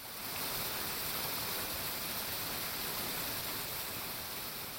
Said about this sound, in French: Toujours sur la presqu'île, la place des terreaux, qui est la place de l'hôtel de ville et qui a été tout récemment rénovée, Possède aussi son lot de petits jets d'eau prêts à mouiller les pieds des plus distraits.